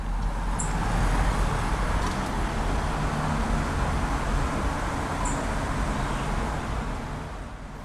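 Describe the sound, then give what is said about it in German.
Steady, loud street traffic rumbles throughout, while a song thrush gives two thin, high, very brief calls, one near the start and one toward the end, nearly buried in the road noise. “Auf der Tonaufnahme geht der Ruf der Singdrossel im Straßenlärm fast unter.”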